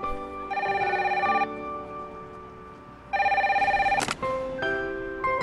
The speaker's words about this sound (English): they walk by a conch shell, and the conch shell rings, and then oh, people from all different walks of life, adults, children, are picking up conch shells and saying hello, and the sea, the ocean, is on the other end calling these people literally.